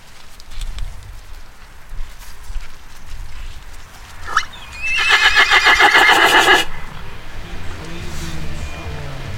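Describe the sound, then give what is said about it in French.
A horse lets out a loud, quavering whinny lasting a couple of seconds, rising sharply then trembling rapidly before cutting off, with faint background noise before and after. “Nous, c'est nous trouver ça agréable de travailler avec des, avec des chevaux.”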